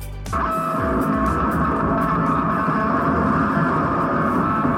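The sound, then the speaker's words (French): A guitar dragged behind a truck as conceptual noise art: a loud, continuous grinding roar with droning, ringing string tones, starting abruptly and holding steady throughout, with no voices. “Le bruit d'une d'air traînée par un camion, du bruit conceptuel avec le plasticien Christian Marclay”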